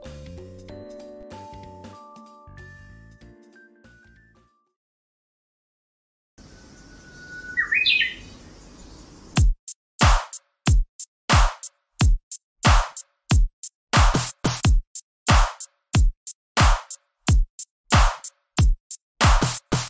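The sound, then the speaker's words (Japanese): A self-made sample-based music track: sustained electronic tones, a brief silence, a burst of chirping bird sounds, then a loud, steady pattern of sharp percussive hits repeating rapidly to the end. No one speaks. “ではですね、この後ですね、私が作ったサンプリング音楽を流しますので、聞いていただければと思っております。”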